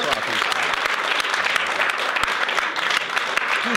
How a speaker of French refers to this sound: On peut t'applaudir.